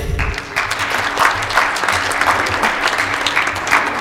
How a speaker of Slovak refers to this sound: poprosíme potlesk.